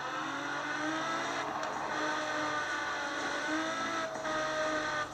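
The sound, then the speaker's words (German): The engine of an Apollo Intensa Emozione race car in a driving video game drones steadily at high revs, its harmonic whine rising and falling slightly over several seconds, loud with no talking. “Ähm, auf jeden Fall hört ihr wahrscheinlich gerade auch den Sound des Wagen.”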